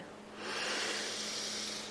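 A single long, deep breath drawn in, a steady airy rush that swells after a brief pause and holds for over a second, fairly quiet with no talking, taken while stretching the arms out and clenching the fists.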